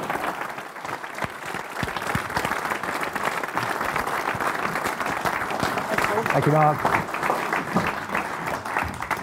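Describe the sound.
An audience gives another round of applause for a speaker, clapping steadily for several seconds, a dense, even wash of many hands clapping at a loud level, with a voice briefly speaking over it partway through.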